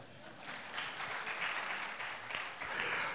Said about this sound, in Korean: 하와이 갔다가 이제 오셨네. 할렐루야. 어, 얼굴이 새까맣게 타서 오셨네. 환영의 박수 한번 주세요.